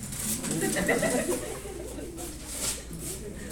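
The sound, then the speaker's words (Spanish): Several voices hoot together in imitation of an owl, overlapping low cooing calls that blur into a noisy, steady group sound for a few seconds. “A ver, háganle la lechuza ya.”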